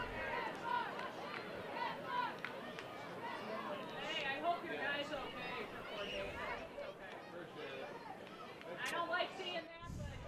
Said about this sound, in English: Got some chatter on the crowd mic there. That's coming from the camera bay off to our left.